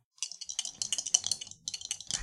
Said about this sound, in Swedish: så jag slog nio på tärningen och så har jag fem i kropp obemärkt ett marginellt lyckat slag.